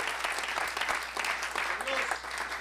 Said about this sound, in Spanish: A ver, démosle un aplauso al Señor esta noche. Gloria a Dios.